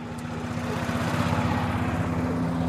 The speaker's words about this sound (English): a truck sprays sand into a bunker on the course.